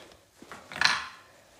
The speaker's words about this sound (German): Schlüssel in einer Tür drehen.